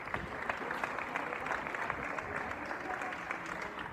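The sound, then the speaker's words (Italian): People in Spain applaud doctors from balconies during the coronavirus emergency, a daily applause at a set time: steady, dense overlapping claps forming a continuous, even wash of sound at moderate loudness, with faint voices mixed in. “Innanzitutto interrompo un attimo il video per rendervi partecipi dell'applauso che il popolo spagnolo fa ai medici che stanno lavorando ogni giorno per”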